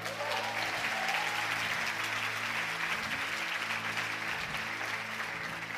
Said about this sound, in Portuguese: É isso mesmo, pode aplaudir.